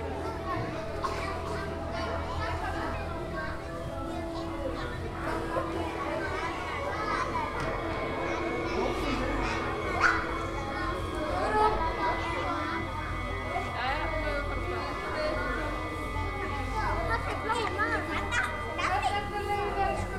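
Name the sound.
children playing and talking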